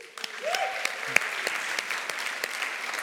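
An audience breaks into steady, dense applause, many hands clapping at once in a sustained wash of sound with a few sharper claps standing out, filling the room for several seconds.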